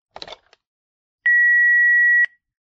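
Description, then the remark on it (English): A brief rattling click, a short pause, then an answering machine's single loud, steady beep holding one high pitch for about a second before cutting off. No one speaks. “I don't have paper and pen to write a note, so I guess my answering machine will have to do.”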